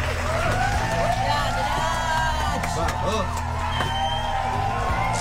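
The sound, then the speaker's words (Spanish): An audience applauds steadily for the whole stretch, a dense wash of clapping mixed with a few cheers and whoops, while music with sustained tones plays underneath. “con este besito, con esta música y con este aplauso.”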